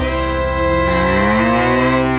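A single loud, drawn-out cow moo, a sustained low bellow with a strong harmonic tone that rises and bends slightly before trailing off, with no talking.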